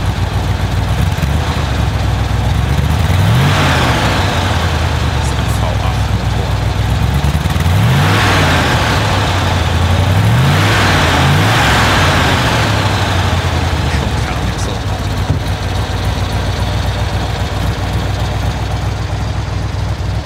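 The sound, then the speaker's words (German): A Tatra 603 car's V8 engine revs repeatedly, rising and falling in several throaty surges over a steady low rumble, loud and continuous with no talking. “Und deswegen möchte ich mal darauf hinweisen, dass dieser kernige Sound, den du jetzt hören wirst, aus dem Podcast und nicht aus der Umgebung stammt.”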